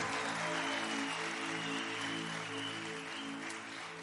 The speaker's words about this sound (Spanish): Vamos, un aplauso, si quieren dar un aplauso